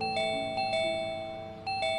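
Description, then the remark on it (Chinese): An electronic doorbell chimes in repeated bright, ringing tones with sustained harmonic overtones, the notes striking at intervals and fading slowly, with no voices present. “有人来了，你快去开门吧。”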